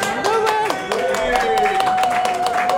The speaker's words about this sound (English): Mayor Kelly Burke joining us at Durbin's. Let's give her a hand real quick for joining us.